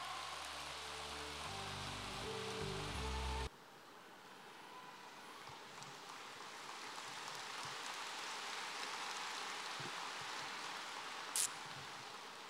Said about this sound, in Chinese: 现在就让我们用最热烈的掌声，恭请我们尊敬的卢军宏台长。